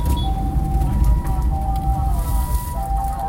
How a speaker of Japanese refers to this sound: 救急車が、救急車が怒られた。救急車に怒られた。かぶってきたな。